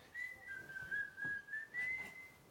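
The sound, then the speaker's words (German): A steady, sustained whistled tone holds at one pitch for a couple of seconds, wavering slightly, with faint background noise underneath and no clear speech. “Digga, was pfeift ihr?”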